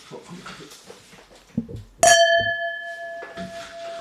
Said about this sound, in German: Wir müssen erstmal anstoßen.